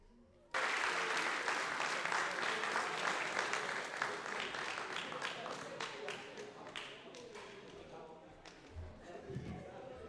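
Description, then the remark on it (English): Applause from an audience at an SBU class event, following a look at memories through the years, bursts in suddenly and holds steady as a dense wash of many hands clapping, then gradually thins and softens toward the end. “Round of applause for all those memories, y'all.”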